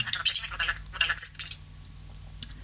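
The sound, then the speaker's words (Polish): A smartphone keyboard ticks rapidly as a finger slides across the screen: a quick, uneven burst of crisp, high clicks for about a second and a half, then quiet and one last tick. “jest on bardziej czuły na dotyk, co Państwo słyszą, że...”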